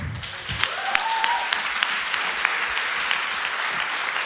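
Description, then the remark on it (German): Sustained audience applause for four speakers after their powerful words on stage, a dense, steady wash of many hands clapping with occasional sharper claps standing out, filling the whole few seconds at an even, fairly loud level. “Und diesen Applaus verdienen die das verdienen die nicht nur für diese kraftvollen Worte hier oben,”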